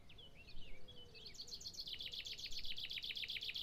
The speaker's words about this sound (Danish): Solen er ved at gå ned bag ved byggepladsen, og fuglene er begyndt at synge deres aftensang.